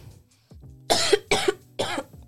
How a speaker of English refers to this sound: Ah, oh, lady had to cough.